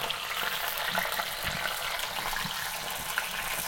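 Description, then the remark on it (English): Steady sizzling of Lightlife Gimme Lean plant-based sausage frying in a pan, with a few soft taps and scrapes as a utensil chops it up. It chops more easily as it cooks and dries out. No voices are heard. “So I'm chopping up the sausage. It also gets a little easier to chop the more it gets cooked and dried out.”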